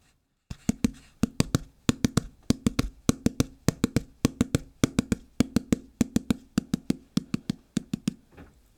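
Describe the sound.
Two hands knock on the floor rapidly, alternating left and right in a rolling pattern of sharp taps grouped in threes, imitating a horse's gallop. Steady for several seconds with no talking.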